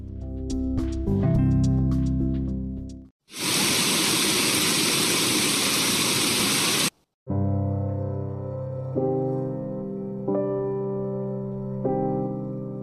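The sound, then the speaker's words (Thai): A loud, steady wash of rain and blowing wind fills a few seconds in the middle, bracketed by tonal music before and after it, with no talking. “และทุกอย่างก็เงียบลง เหลือไว้แค่เพียงเสียงสายฝน กับเสียงของสายลมที่โชยมาเท่านั้น”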